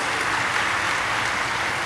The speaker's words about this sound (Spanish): Ahora, si le quiere regalar ese aplauso, regáleselo a él. Vamos a celebrarlo como él es.